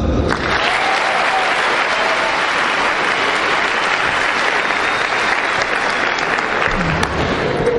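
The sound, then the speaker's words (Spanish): Sustained applause from a group, a dense steady wash of many hands clapping at a loud, even level for several seconds with no talking over it. “Date un aplauso.”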